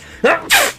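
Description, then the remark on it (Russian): A single loud sneeze: a brief voiced intake rising into a sharp, hissing burst of air, all under a second, with no talking around it. “Будь здоров.”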